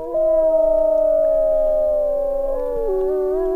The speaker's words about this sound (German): als die Pfarrei St. Joseph 1831 gegründet wurde, gab es im Portage County noch Bären, Wölfe